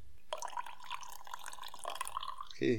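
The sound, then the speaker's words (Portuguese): Coffee trickles and splashes into a cup in a steady pour during a recording session, with bright dripping tones throughout before a brief louder clunk at the end. “Ah, falando nisso, ó, escuta, escuta o barulhinho gostosinho.”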